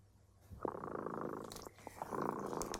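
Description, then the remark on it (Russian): A cat, Kot Dremota, purrs steadily, a soft rumbling hum with rhythmic pulses that swell and fade over a few seconds, with no talking. “Слышите, кот Дремота запел свою песенку. Это значит, что пора засыпать.”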